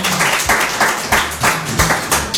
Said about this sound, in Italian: Applauso.